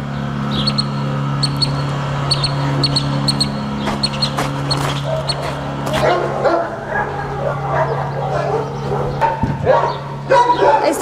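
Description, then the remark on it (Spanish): Many dogs bark and yip in the cages of a kennel's quarantine area, overlapping continuously, with a steady low hum of machinery underneath and occasional clanks and shuffling. “es nuestra área de cuarentena. Los perros que previamente pasaron por la parte externa van a ingresar por una de las jaulas que está dentro y donde los médicos les van a hacer alguna revisión.”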